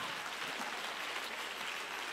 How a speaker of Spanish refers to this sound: Si le va a dar el aplauso, si tú quieres.